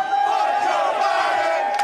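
A large crowd at a race chants in unison, a dense, steady roar of many voices that holds at a constant loud level throughout without a break.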